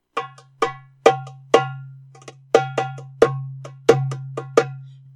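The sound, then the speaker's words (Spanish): A series of sharp, bright darbuka tek strokes played with the first finger joints of two or three fingers on the drum's edge, struck alone in a loose rhythm with some softer taps between the louder hits, each ringing briefly over a low steady hum. “Porque también, por ejemplo, está lo que llaman el TEC, que se toca por lo general con las primeras falanges de dos o tres dedos y se toca más en la orilla de la darbuca.”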